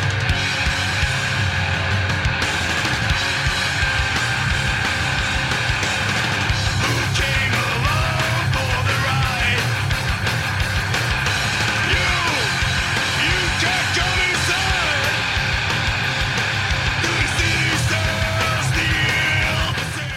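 A loud metal band plays a punk rock song: dense distorted guitars, pounding drums and harsh shouted vocals drive continuously at full volume from start to finish.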